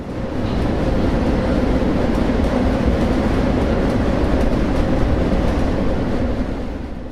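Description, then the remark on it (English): A freight train, heard while riding on one of its cars, roars along with loud, continuous rattling and clanking, a dense low rumble filled with rapid metallic chatter that never lets up, with no voices. “It's deafening. We can't speak even at the tops of our lungs.”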